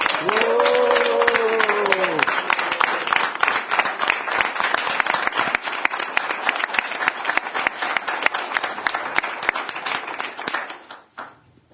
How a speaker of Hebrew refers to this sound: ועכשיו מחיאות כפיים לקבוצת ראשון לציון.